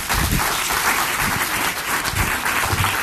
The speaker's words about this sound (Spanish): Dale, si le va a dar ese aplauso, déselo fuerte. Give the strong applause.